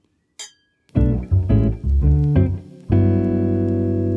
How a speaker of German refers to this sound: wir haben uns ja beide hier so ein Gläschen Wein geholt. Mhm. Ich würde sagen, wir stoßen mal an. Chin, chin.